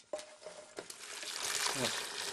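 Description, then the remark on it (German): In a country kitchen, a grandmother pours hot water over old black bread toasted in a pan to make kvass, a steady, splashing stream that builds and grows louder toward the end, after a few light knocks at the start. “Dann gießt sie heißes Wasser dazu, ein bisschen Salz, ein wenig Hefe, gut umrühren und stehen lassen.”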